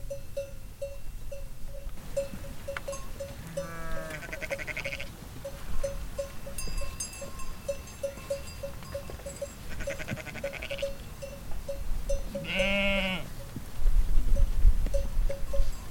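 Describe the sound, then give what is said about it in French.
Cowbells on livestock grazing in the mountains clank in a steady, repeating rhythm throughout, with several goat or sheep bleats rising over them and a low rumbling background. “Les cloches me réveillent, tiens, on dirait que tu bouges.”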